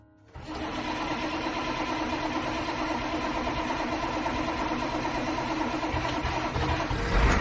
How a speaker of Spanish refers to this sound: Venga, sécate las lágrimas y suba al autobús. El autobús.